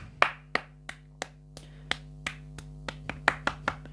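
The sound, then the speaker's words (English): About a dozen sharp hand claps at a steady beat that quickens slightly toward the end, some louder than others, over a constant low hum with no talking. “Clap, clap, clap for me.”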